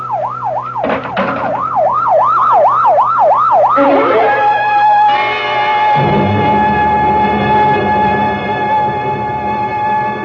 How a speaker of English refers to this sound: Oh, better get that ambulance out here fast. Professor may still have a chance. Here it comes now, Lieutenant.